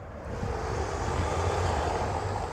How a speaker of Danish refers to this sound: Nå, det var bilen.